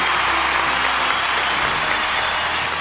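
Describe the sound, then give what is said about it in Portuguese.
Steady applause from a crowd in tribute to the Marvel series Loki, a dense, even wash of clapping that holds at a constant loud level for a few seconds without any voices. “Parabéns a Marvel aí, uma salva de palmas de todos pra série Loki.”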